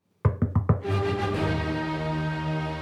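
Four quick, evenly spaced knocks on grandmother's door in a Little Red Riding Hood story, fairly loud, then a sustained, rich musical tone swells in and holds steadily to the end.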